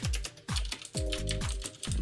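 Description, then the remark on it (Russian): Crisp clicking of a mechanical keyboard with blue switches, several keystrokes in a steady, moderately fast rhythm with no voices over it. “Вот, вот, вот это вот любимые мои голубые.”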